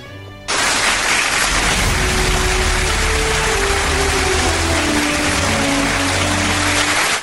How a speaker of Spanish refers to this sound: Ya eh, basta de, las, de los aplausos.